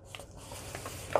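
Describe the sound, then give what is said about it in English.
Quiet paper rustling with soft scattered crinkles as a sheet of paper is folded over, ending in a sharper, brighter crease at the close. No voices. “The bottom lines up, the top lines up with the top there, and then I'm going to fold over”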